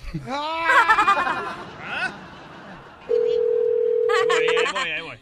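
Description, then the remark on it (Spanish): A steady, unbroken telephone dialing tone, heard as a call is placed to a man's girlfriend, hums at one mid-low pitch for about a second and a half, loud and even, with wavering, bleat-like vocal sounds just before and after it. “Estamos marcándole a su novia de este camarada, ¿ok?”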